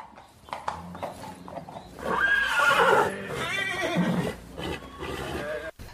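A horse lets out a loud, drawn-out whinny, its quavering call rising and falling over a couple of seconds, with a few hoof clops and stable noise around it.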